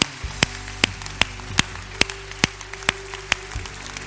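A church audience claps in steady unison to give God a big round of applause, sharp beats about every half second over a sustained low tone like a held keyboard chord, with no voices.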